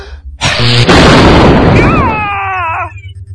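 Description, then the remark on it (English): A sudden loud crackling blast erupts and roars for about two seconds, then fades into a rising, warbling electronic whine with a low hum beneath, like a zapping energy-beam effect: Ultra Monkey's Lightning Breath attack. “Would you like a shock instead? Would you? Go, go, Ultra, Ultra Monkey, Monkey Lightning, Lightning Breath!”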